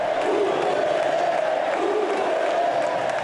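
A large stadium crowd of fans at a Santos match in the Brasileirão roars and applauds steadily for President Bolsonaro, who wears Santos's legendary number 10 shirt. The dense, continuous wash of cheering voices and clapping stays loud throughout, with no single voice standing out.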